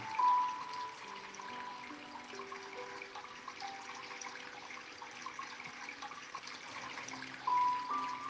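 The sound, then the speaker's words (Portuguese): A stream's water flows steadily without pause, a continuous soft rushing, with faint sustained tones humming quietly underneath and no voices. “À beira do riacho”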